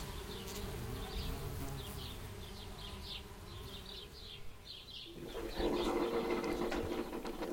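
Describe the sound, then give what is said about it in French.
A coffee machine runs with a steady, droning mechanical buzz and faint rhythmic pulsing, then shifts partway through to a louder, rougher hissing and gurgling as the coffee brews. No one speaks. “Oui, je fais du café et la machine fait du bruit.”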